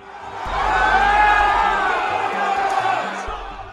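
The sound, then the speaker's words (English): A large crowd of Trump supporters who made it inside the U.S. Capitol yells and screams together in a sustained, loud roar, many overlapping voices shouting with an agitated, aggressive intensity that swells and stays dense throughout. “you might hear the sounds the shattering of glass, the screams and shouts of those who made it inside as they scoured the cavernous halls of Congress.”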